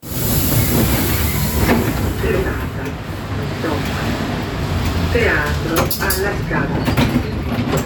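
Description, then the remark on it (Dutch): A train rumbles through a busy railway station in Milan, Italy, with steady low-frequency noise, scattered clanks and brief high squeals, while voices murmur faintly and echo. “Hier kom je misschien aan als je per trein naar Milaan reist of vanuit Milaan de omgeving of andere delen van het land gaat ontdekken.”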